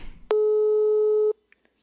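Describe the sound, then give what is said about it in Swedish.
A single steady electronic phone ringback tone while calling someone, lasting about a second, loud and clear, cutting off abruptly into near silence with a couple of faint clicks after. “Att, eh, jag tänker att vi ringer upp henne och kollar vad hon skulle tipsa om att eh, fokusera på när man är hemma.”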